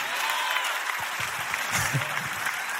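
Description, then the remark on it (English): Thin, scattered audience applause, a steady light patter of hands clapping without much energy, with a few low murmurs from the crowd underneath. “Let's celebrate the fact that we had the self awareness to stand up and know that we're hard on ourselves. See how weak that was?”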